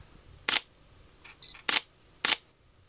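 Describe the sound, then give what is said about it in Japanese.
Three crisp shutter clicks from a newly bought, very light mirrorless camera held in one hand, isolated and spaced roughly half a second to a second apart, with a faint electronic beep and whir between the first and second. “まずですねとっても軽いもう今片手でねマイク持って片手でカメラ持ってますけどめっちゃ軽いですね思った以上に軽いこれはこういう音なんですけどね”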